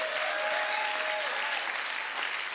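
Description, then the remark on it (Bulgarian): A church audience claps during a sermon in a dense, steady wash of applause that holds evenly for a couple of seconds, with no voices rising above it and a faint thin tone briefly threading through. “О, ако ръкопляскаш, ръкопляскай, че наистина вярваш.”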